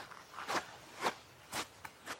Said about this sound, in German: So, die ersten Schritte am Strand und schon freue ich mich, hohe Stiefel anzuhaben. Der Sand schafft es trotzdem immer wieder in die Schuhe.